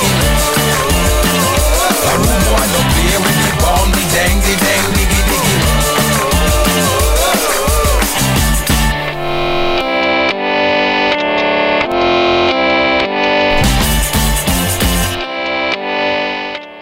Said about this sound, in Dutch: dit is ook lekker hoor. Dit is zo'n bangertje, vind ik. Ik, vind, ik heb deze ook in mijn afspeellijst gezet.